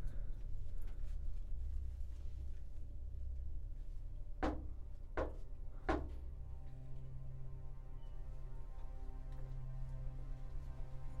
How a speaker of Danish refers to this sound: Hører banket igen. Endnu tættere på.